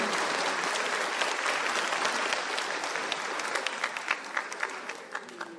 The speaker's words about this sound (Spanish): Dense un fuerte aplauso.